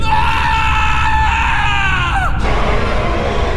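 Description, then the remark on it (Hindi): A conductor in a desert, his feet held fast in the sand, screams in terror at what he sees, one long, loud, high-pitched cry that wavers and then drops in pitch before cutting off abruptly, leaving a steady low rumble of background noise. “थोड़ी ही देर में वो भयानक आवाजें और भी करीब आती गई और कुछ ही देर में जो उस कंडक्टर ने देखा तो डर से उसकी चीखें निकल गई”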